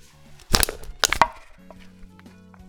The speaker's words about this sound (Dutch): En dat is het kraken van een blikje waarvan het design me heel gaaf staat.